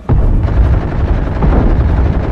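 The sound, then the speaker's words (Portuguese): Loud, rapid gunfire rattles on without pause, a dense barrage of shots over a heavy, booming low rumble that fills the whole stretch with no voices. “Mesmo com tantos tiros, o Mecha ainda o segurava com força.”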